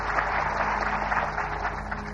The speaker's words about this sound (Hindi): तालियां बजा देना